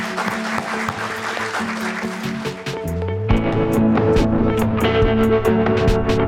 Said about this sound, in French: des remerciements aux panélistes que je vous invite à applaudir euh, par la présence.